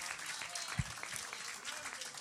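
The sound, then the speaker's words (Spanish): An audience applauding Almighty God during a church service, a dense steady patter of many hands clapping throughout, with one sharper low thump partway through and a faint voice underneath. “Dele un aplauso a ese Dios todopoderoso.”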